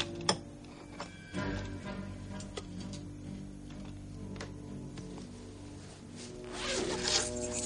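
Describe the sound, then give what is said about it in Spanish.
In a tool workshop, Esther stows a hammer in a backpack: the backpack zipper rasps open and closed, with a few scattered clicks and soft knocks of handling, ending in a longer, louder zip over a low steady hum. “Mientras, ella coge un martillo y lo guarda en una mochila.”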